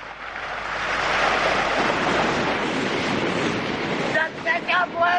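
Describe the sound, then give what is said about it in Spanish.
Mediterranean Sea waves wash steadily onto the beaches of Nerja, Spain, in a continuous rushing surf, and near the end the voice of one of a group of young friends shouts over the breaking water. “Las olas del mar, de ese Mediterráneo llegando a las playas de Nerja y esa voz que rompe de fondo de uno de los chicos de la pandilla.”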